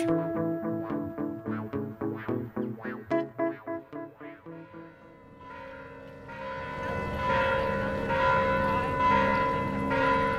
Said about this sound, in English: The bells are ringing here at Mission San Juan Bautista, where we began our episode.